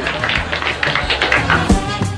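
A group of old women applauding, with dense, steady clapping that holds at an even level for about two seconds, with no talking over it.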